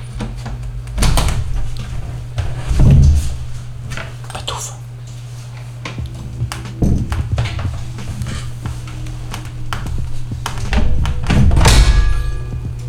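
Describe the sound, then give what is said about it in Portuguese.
A worn, broken door in a building bangs loudly several times at irregular intervals, with heavy thuds and rattling, over a steady low hum and no talking. “Acordei o prédio todo. Porque esta porta está toda fodida.”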